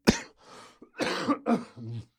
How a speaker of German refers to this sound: oh, diese Husten